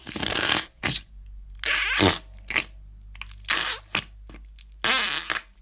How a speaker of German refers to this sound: Das Coole an dem ist, man kann den so in die Verpackung quetschen und dann pupst der.